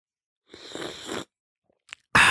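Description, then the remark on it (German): A noisy slurping sip of hot peppermint tea with a dash of honey lasting under a second, followed by a faint click and then a sharper, louder burst of breathy sipping noise at the end. “Das ist ich, wie ich mir äh, den großartigen Pfefferminztee mit einem Schuss Honig”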